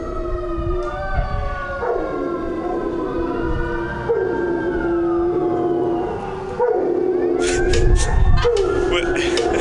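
A dog howls in long, wavering, rising and falling cries, loud, blending with a sustained siren-like wail, with a few sharp noisy bursts toward the end.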